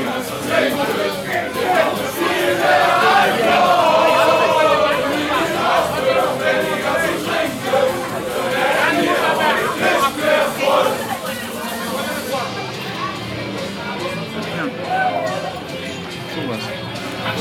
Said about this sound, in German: hört man die Straße im Hintergrund?